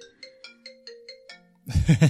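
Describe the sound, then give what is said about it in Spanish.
A phone ringtone plays: a quick, even run of seven bright electronic chirps over a steady tone, then a burst of louder voices cuts in at the end. “No sé qué le pasó a mi teléfono.”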